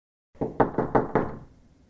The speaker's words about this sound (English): Ugh, now who could be knocking on the door?